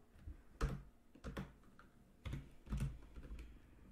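Clicky keystrokes on a computer keyboard without a Portuguese layout arrive in short irregular bursts of several taps, with brief pauses between them and no voices.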